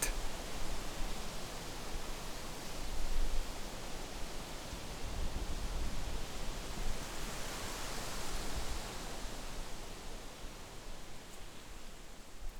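Oak leaves rustle steadily in the wind, a dense continuous hiss with small surges and softer moments, moderately loud, with no voices.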